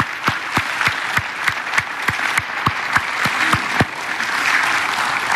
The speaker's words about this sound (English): And and I, yeah, let's let's clap for them.